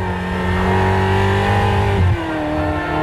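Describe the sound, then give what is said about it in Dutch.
A Ferrari sports car approaches, its engine roaring loudly and holding a steady high-pitched rev before the pitch drops sharply near the end. No one speaks. “Ferrari komt eraan.”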